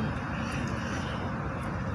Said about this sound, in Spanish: Viendo cómo, cómo aterrizan los aviones